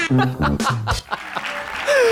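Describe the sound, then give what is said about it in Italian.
A short, loud burst of canned applause with cheering and laughter mixed in, with a whistle rising near the end over the clapping. “in questo applauso scroscianti”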